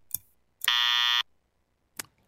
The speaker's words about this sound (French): Ah, bah ouais, j'ai mis le buzzer, ah mais, bah non, mais j'ai- appuyé mal- malencontreusement.